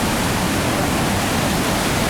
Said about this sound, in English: Coming up, you can start to hear the roar of the falls. The falls are so loud, I don't know if you can even hear me as I record. Getting a face full of mist, it's really beautiful.